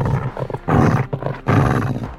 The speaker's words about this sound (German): Also unter einem Fido stelle ich mir zwar eher so einen ganz lieben, treuherzigen Hund vor, aber so wie das jetzt gerade tönt, da bekomme ich doch ein bisschen Angst.